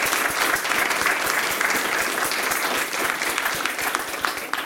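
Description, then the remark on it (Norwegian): An audience claps for the nomination 'Tapas i Statsministeren', a dense, even patter of many hands at a fairly loud level that holds for the whole stretch before easing slightly at the end, with no voices over it. “Og klapp nå for Tapas i Statsministeren.”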